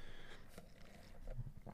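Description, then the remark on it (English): Slurping from a raspberry lime drink: a quick series of wet, sucking mouth sounds and small gulps over a couple of seconds, fairly quiet and with no talking. “Take slurp of raspberry lime.”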